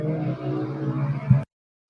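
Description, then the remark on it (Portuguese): A passing car's engine drones steadily with a low, rumbling hum, swells slightly near the end, then cuts off abruptly into silence. “Resolveu passar um carro em cima da minha cabeça.”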